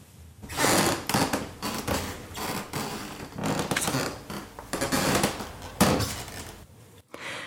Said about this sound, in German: Ein knarriger Holzboden, ja, das kenne ich gut aus meiner Kindheit in einem alten Bauernhaus.